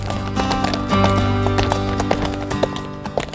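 Horse hooves clip-clop in a steady rhythm, a series of sharp taps over a low continuous hum, with no one speaking.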